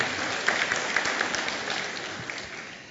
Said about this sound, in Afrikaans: Geef vir die orkes 'n lekker hande klap.